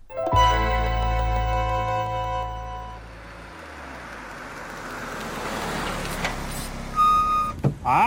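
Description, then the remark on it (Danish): Inside a moving car, recorded for P2's Bilradio on 12 March 2017: a steady low engine hum and road rumble, then rustling and a couple of short knocks near the end as someone gets in and settles into the seat. No one speaks. “ja om hele verden, imens vi kører i bil.”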